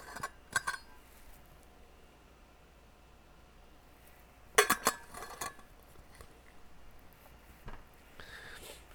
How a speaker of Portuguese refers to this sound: Maravilha, deixa eu tomar um golinho de água.